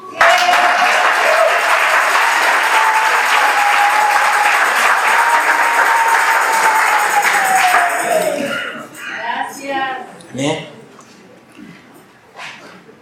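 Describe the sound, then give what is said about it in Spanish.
An audience applauds loudly and steadily for about eight seconds for those who came to the previous day's work camp, a thin sustained tone running beneath the clapping, before it dies away and a man begins speaking. “Otro aplauso.”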